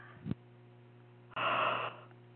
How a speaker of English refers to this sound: Oh man, this stuff is making me yawn here.